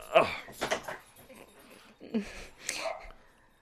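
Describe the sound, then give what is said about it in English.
A dog barks a few times in short, separate bursts, a pair near the start and another pair near the end, fairly quiet, with no talking. “the dog's barking.”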